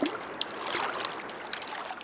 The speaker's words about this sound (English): We paddled over calm waters and enjoyed the sunny skies and the peaceful sounds of nature.